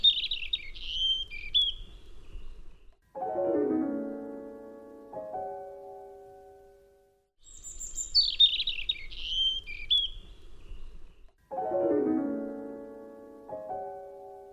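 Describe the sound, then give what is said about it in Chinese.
Two bursts of a wren's song, high, rapid trills and chattering notes, each followed by a lower, tonal warbling phrase of a few seconds. No one speaks. “这个叫做鹪鹩。”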